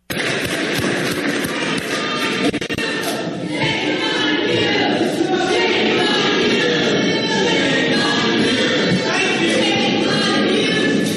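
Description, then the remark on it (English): A large crowd in Harrisburg chants "Shame on you" in unison, loud, its voices merging into a dense, continuous roar that swells in repeated waves for about eleven seconds. “so the uh, crowd is chant- uh, chanting "Shame on you."”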